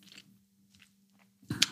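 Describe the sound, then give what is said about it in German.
A dog named Ronja gnawing on a tough bull pizzle chew: a few soft, scattered crunching bites, then one louder, sharper crunch near the end, with a faint low hum underneath. “Auf jeden Fall, während Ronja ihren Ochsenzimmer kaut,”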